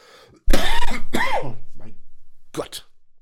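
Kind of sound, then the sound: human body sound, coughing and throat clearing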